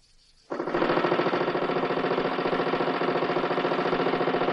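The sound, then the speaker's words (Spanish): A motorcycle with a sidecar, carrying two men and much luggage, starts up abruptly after a brief quiet moment, then runs steadily and loudly with a rapid, throbbing pulse at high speed along a road past a petrol station, with no voices. “Desde la carretera por la que avanza la moto se observa la gasolinera.”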